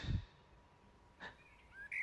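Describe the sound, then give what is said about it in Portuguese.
A bird gives a few quick, high chirps after a soft low thump, the tweets bright but fairly faint and spaced over a couple of seconds, as it flies free from a cage whose door has just been opened, with no one talking. “Até que não aguentou mais, abriu a porta da gaiola. Pode ir, pode ir, pássaro.”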